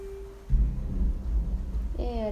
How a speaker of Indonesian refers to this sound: geledek